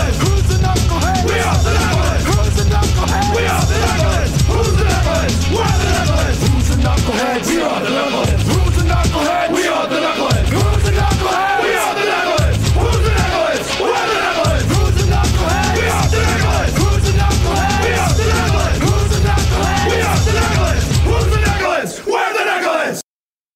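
A loud, full-band rock song with a crowd of voices chanting and shouting together in unison, driving drums and guitars underneath, playing continuously before cutting off abruptly near the end.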